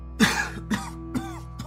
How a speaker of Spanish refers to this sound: cuando de pronto se escuchó una tos que llegaba de la vecindad. Era una tos persistente de una persona mayor como de un anciano enfermo.